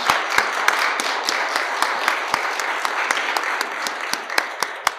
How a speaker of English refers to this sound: Let's give Jesus a hand clap tonight. Amen? Thank you, Jesus.